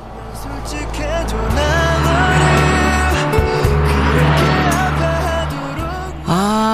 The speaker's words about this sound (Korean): 하던 일 잠시 멈추고 귀를 기울여 주세요. 옆에 지나가는 차에서 듣고 있는 노래 과연 뭘까요? 자, 차 지나갑니다. 들어보세요.